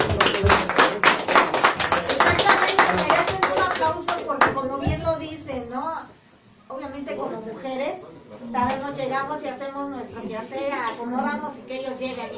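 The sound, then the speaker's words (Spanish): A burst of applause for the women of the sonidero movement, many hands clapping quickly and loudly for a few seconds, fades out. Then a person begins talking while a few scattered claps linger underneath. “Pero gracias de verdad de todo corazón, este, ustedes como mujeres que nos aguantan mucho, ¿eh? la verdad. Aplausos.”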